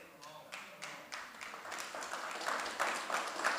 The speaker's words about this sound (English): Oh, if you're going to clap, clap.